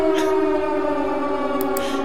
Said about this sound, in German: Silent Hill Sirene